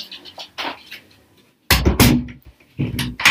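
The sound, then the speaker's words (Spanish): A door slams shut with two loud, sharp bangs in quick succession as someone arrives, followed by another heavy thud a moment later, after a stretch of faint rustling. “llegó nuestro hermano Nacho y guardia pues él siente la puerta”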